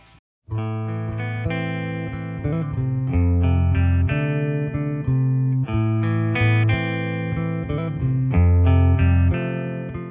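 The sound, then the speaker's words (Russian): An electric guitar plays a song intro alone, a melodic riff of ringing, picked notes with a shimmering chorus-like effect, steady in loudness for about nine seconds after a brief silence, played in a garage on a guitar plugged into an amplifier. “Вставил шнур в усилитель и заиграл.”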